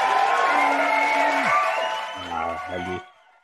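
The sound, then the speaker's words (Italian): A crowd applauds and cheers loudly, clapping mixed with voices and whoops, then trails off and fades out after about three seconds. “Abbiamo anche gli applausi, non, non bastava il gattino, ma abbiamo anche gli applausi.”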